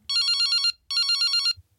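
The ringing tone of an outgoing phone call: two short, trilling electronic bursts separated by a brief pause, bright and fairly loud, with no one talking.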